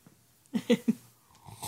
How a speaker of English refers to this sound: And we're trying the Twilight, so let's give it a go, shall we? Let's let's give it a slurp.